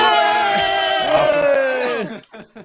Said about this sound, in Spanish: Tengo que acostumbrarme a desmutearos antes de que hagáis eso porque si no, no se os oye. Han gritado todos a la y ha sido mm, genial, ha sido Vale, Espérate, pues que repetimos.